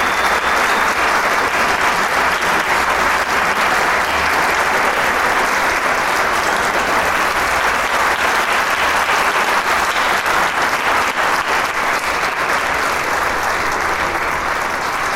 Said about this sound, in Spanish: La gente no se, cansa de aplaudir a esta su camarata de Coahuila aquí en el Teatro Isauro Martínez. Extrañábamos los aplausos y los músicos también se les ve felices de una vez más recibir ese alimento que el público tan generosamente da